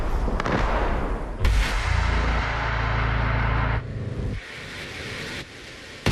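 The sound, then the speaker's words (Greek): Sharp bursts of gunfire and heavy booms crack through a low, rumbling background, with several loud reports spaced irregularly and a deep sustained rumble between them, in Irpin. “Πάμε να φύγουμε γιατί αρχίζουν οι πυροβολισμοί.”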